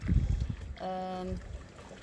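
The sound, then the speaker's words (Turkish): Wind buffets the microphone among the rocks at Kargı Cove in Datça, Turkey, a cove usually sheltered from wind, in low, rumbling gusts, with a brief droning harmonic tone, like a boat motor, rising briefly in the middle. “en rüzgar almayan koyu ama bugün burası da rüzgarlı çok ilginç biçimde.”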